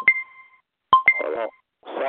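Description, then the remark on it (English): A timer goes off with three bright electronic chime tones, each ringing briefly and fading, the last two close together, followed by muffled talking. “I still had that timer going.”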